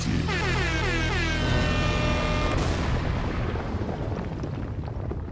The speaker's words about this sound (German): Gut, Jingle ab, ja die Abrechnung. Jetzt wird knallhart abgerechnet mit der Folge. Also wie so eine Art Fazit.